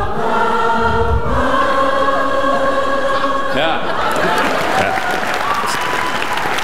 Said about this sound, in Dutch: Het publiek is gewoon verbaasd van zichzelf dat ze blijven zingen. Dat ze, dat, ze dat gewoon kunnen voorspellen. Dat ze kunnen voorspellen wat ze moeten zingen.